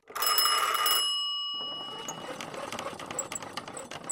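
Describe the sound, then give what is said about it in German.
An old telephone bell in a telephone exchange rings in a loud metallic burst for about a second, then its tone lingers and fades while a busy, clattering background carries on. “Das Fräulein vom Amt stöpselt in den Telefonzentralen die Leitungen und beantwortet freundlich Fragen im Akkord.”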